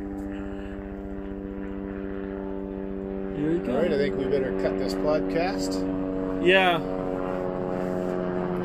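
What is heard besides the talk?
helicopter flying overhead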